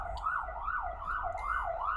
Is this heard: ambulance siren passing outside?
yes